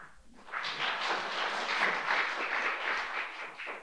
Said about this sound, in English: I love that. We, that's a very specific kind of applause.